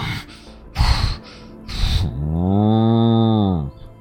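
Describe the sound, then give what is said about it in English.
A person imitates a cow: two sharp, breathy snorts followed by a long, low, drawn-out moo-like groan, with no other talking. “uh, you watch as the cow says,”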